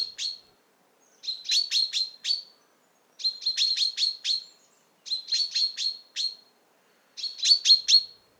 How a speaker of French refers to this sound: Pour cet épisode exceptionnel, rencontre à 1500 mètres d'altitude sur la montagne du Puy, le 19 février, avec les oiseaux chanteurs du moment. Les premiers cris sont ceux de pinsons des arbres qui s'éveillent.